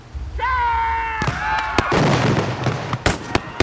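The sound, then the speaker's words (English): A rising whistle gives way to a ragged volley of sharp gunshots and heavy cannon blasts, loud, firing irregularly with a rumbling background of battle: Union troops at Fredericksburg by the Rappahannock taking heavy fire as General Burnside shoots cannons into the town. “Union Captain Brainerd and other Union troops begin to take heavy fire.”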